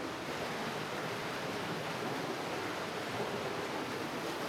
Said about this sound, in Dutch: We, we, we, staan hier te praten en de wind neemt duidelijk toe. Ja. Want je ziet de vijzel veel sneller eh, gaan draaien.